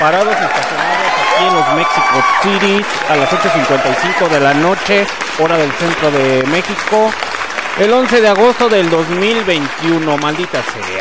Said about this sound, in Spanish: Que sigan los aplausos, que sigan los aplausos.